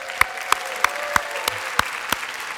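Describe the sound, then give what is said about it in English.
Steady applause from a crowd for a children's choir, with one set of sharp, evenly spaced claps standing out above the wash of clapping at a brisk, regular pace. “So, this evening, if you were blessed by the children's choir, would you just let them know one more time with a round of applause?”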